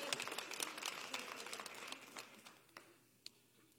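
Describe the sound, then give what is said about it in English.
A small home church audience applauds for a singer, a dense patter of clapping that thins out and fades over a few seconds, ending in a couple of scattered last claps. “You can clap for him.”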